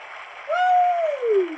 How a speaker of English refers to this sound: Let's clap it up for Principal Brown. Let's clap it up.